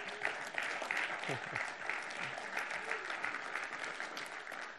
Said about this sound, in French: J'imagine euh, J'imagine que vous m'applaudissez à cause que j'ai trois enfants.